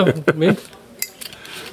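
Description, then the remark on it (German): A short vocal sound opens, then glasses clink together in a toast: one bright, sharp clink followed by two or three lighter, high-pitched taps that ring briefly and fade. “Prost. Prost.”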